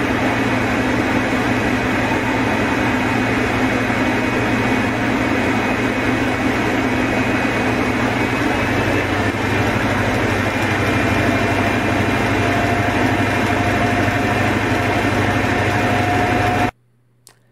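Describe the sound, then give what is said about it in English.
The diesel engine of an HST power car, not a Valenta, goes to full power: a loud, steady roar, a sustained drone with deep low rumble and tonal whine, running unbroken for about seventeen seconds before cutting off abruptly. “Oh, that's that's going to full power in an HST power car.”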